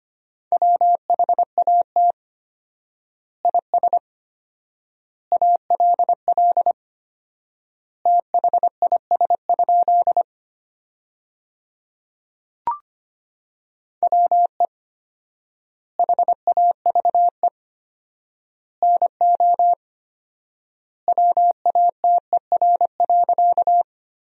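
Morse code beeping at 25 words per minute with four-times word spacing, sending sentences built from the top 100 words: a single steady mid-pitched tone keyed into quick dots and dashes, in word groups separated by long silent gaps, with one brief click midway.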